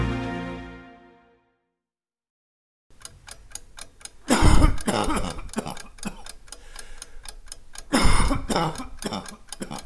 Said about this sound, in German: Das mit dem Husten ist schon komisch. Ein richtiger Reizhusten. Vor allem frühmorgens.